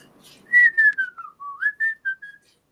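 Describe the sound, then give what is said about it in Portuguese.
A woman whistles a Prokofiev movement as she enters the room carrying a large supermarket bag and pulling a shopping cart, a clear run of about eight gliding, connected notes that rise and fall over a few seconds, with no talking. “Nesse momento, a porta da sala se abre e o que se vê é um enorme pacote de supermercado secundado pela gorda que ainda puxa um carrinho de feira, ela entra assobiando Prokofiev, o mesmo movimento que está sendo tocado pela Soninha lá de cima.”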